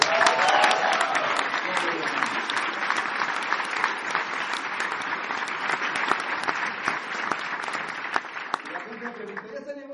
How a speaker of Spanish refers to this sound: Pero fue el primer diamante ejecutivo y el primer doble diamante de este mercado y yo quiero que le den un fuerte aplauso.